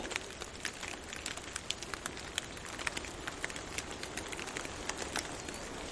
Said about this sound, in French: C'est juste euh, la fonte euh, du saupoudrage de neige qui s'est déposée euh, sur les ramures des sapins.